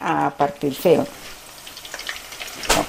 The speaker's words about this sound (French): D'abord, Christina attendrit la banane plantain en la faisant cuire environ 5 minutes dans une casserole. Il faut surveiller qu'elle colore, mais pas trop.